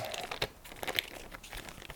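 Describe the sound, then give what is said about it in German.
Crackly crumpling of paper waste, a dense run of sharp crinkles and rustles with brief louder crunches, no voices present. “So, Papiermüll. Ich habe noch kein Papiermüllbehältnis in diesem Raum.”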